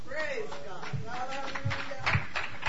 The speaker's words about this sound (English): This is awesome, folks. I love it. Do you love it too? Let's clap right to God.